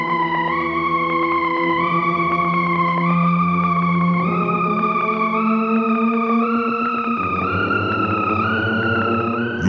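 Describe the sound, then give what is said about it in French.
Eerie electronic oscillator tones from the 1956 film Forbidden Planet's score, composed entirely of electronic sounds with no instruments, drone and slowly glide in pitch, layered with buzzing harmonics and a warbling, effects-laden texture, sustained and fairly loud throughout with no voices. “Le film date de 1956 et c'était la première fois qu'on composait une musique de film uniquement avec des sons électroniques, aucun instrument.”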